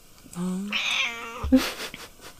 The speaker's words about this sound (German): Die Katze schreit. Ich höre sie nicht. Echt nicht? Nee.